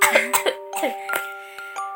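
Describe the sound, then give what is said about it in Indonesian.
A run of several short, sharp coughs in quick succession, with a faint steady tone humming underneath. “dan bentar aku batuk”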